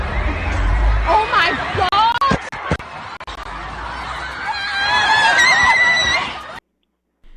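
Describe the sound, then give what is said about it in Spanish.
A panicked crowd at a pop concert in the Manchester Arena screams at the moment of an explosion, a dense, chaotic wash of high-pitched cries and shouts, with sharp bursts midway, a person exclaiming "Oh my god", then the noise cuts off abruptly. “Escuchemos el momento preciso de la explosión en el Manchester Arena con capacidad para mil espectadores y el pánico colectivo desde luego eh, se escucha en esta grabación.”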